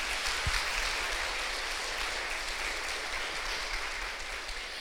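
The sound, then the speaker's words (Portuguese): An audience at a church service applauds for God, a dense wash of many hands clapping at an even level for several seconds with no speech over it. “Se quer aplaudir, aplaude a Ele.”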